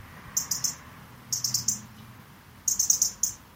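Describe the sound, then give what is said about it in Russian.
A European robin's sharp, metallic tick calls repeat in quick bursts of three to five, pausing between bursts, clear over a soft low outdoor rumble. “Она такая металлическая, такой цик-цик-цик, вот прям ни с чем не спутаешь.”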